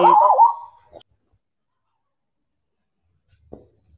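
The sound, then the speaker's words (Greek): A single loud, short dog bark at the very start, followed by a faint brief yip and, after a long silence, another soft bark. “Μέχρι, μέχρι και τα σκυλιά αντιδρούνε σε αυτά που λέει.”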